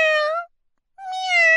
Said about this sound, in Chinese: 喵，啊，是猫小姐，她最喜欢去屋顶溜达了，跟着她走，一定能找到去红屋顶的路。